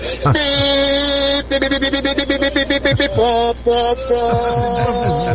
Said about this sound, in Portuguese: Vou mandar aqui a buzina do meu caminhão aqui, hein? Tô Olha. passando aqui pelo Parque Shopping agora, hein?